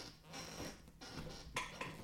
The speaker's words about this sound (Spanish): No sé si lo pilla el micrófono, pero es una silla súper cómoda y desde hace poco ha empezado a hacer este ruido.